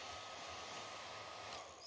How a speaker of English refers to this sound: And the levity is a hairdryer.